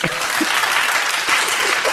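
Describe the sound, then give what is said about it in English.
Sustained applause from a crowd, a dense, steady wash of many hands clapping at once, fairly loud and even throughout with no voices standing out. “Clap if you think she should suffer.”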